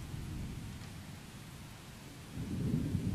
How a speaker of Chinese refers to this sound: 凄厉厉的雨声越发大了，它像是开了闸门似的倾泻了下来。